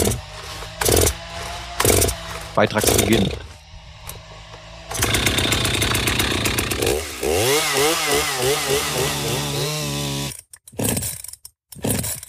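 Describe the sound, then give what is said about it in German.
In a forest near Rickling, at a chainsaw training course, a chainsaw coughs through several short start attempts, then catches and runs loudly, its buzzing engine revving up and down in repeated swells before cutting out abruptly near the end. “Das Leben beginnt manchmal schon beim Anwerfen. Motorsägenlehrgang im Wald bei Rickling.”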